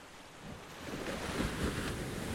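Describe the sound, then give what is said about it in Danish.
Ocean waves break on the shore, a broad rushing roar that swells slightly after a moment and stays loud, with wind mixed in and no voices. “Anne-Marie er ved havet og overvældet og tryllebundet af dit storhed.”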